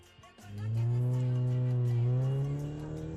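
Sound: car arriving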